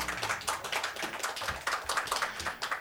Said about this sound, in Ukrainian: Давайте побажаємо оплесками йому скорішого одужання.